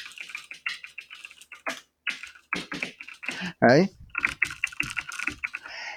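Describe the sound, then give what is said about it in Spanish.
Rapid clatter of a computer keyboard being typed on, a steady run of crisp key clicks with a brief pause and a short vocal sound partway through. “Y lo bueno del teclado este, voy a dejar la documentación de cómo suena para nuestros eh, oyentes,”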